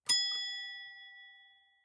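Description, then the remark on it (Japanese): A single bright bus stop request bell ding rings out with a sharp metallic strike, then its clear tones hang and fade slowly over nearly two seconds, heard alone with no voices. “お降りの方は、ベルでお知らせください。”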